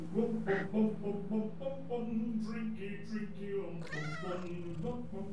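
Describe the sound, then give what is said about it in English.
A cat meows repeatedly, a steady run of drawn-out, tonal cries, with one louder, higher-pitched wail near the end. “there's that cat again.”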